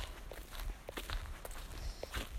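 Steady footsteps crunch over a forest floor at a quick, even pace as a person runs through a forest, with a low rumble of movement and no talking.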